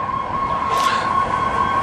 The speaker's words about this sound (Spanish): ¿Por qué pasan tantas ambulancias aquí donde estamos, en esta parte de la ciudad? ¿Por qué siempre hay ambulancias cuando estamos grabando esto?